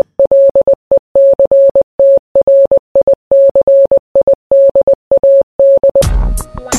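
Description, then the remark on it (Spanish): A single steady electronic tone keys on and off in quick short and long beeps, tapping out a received telegraph message in Morse code at a brisk, even pace, then gives way to a burst of noisier sound. “Bueno, ahora te voy a mostrar cómo sonaba cuando alguien recibía un mensaje de telégrafo.”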